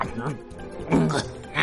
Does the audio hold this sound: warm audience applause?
no